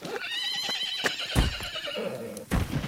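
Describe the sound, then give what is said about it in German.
A horse whinnies loudly, a long wavering neigh, while a few sharp hoof clops thud in between and near the end. “Ich gebe dir mein Pferd und du gibst mir dein Gold.”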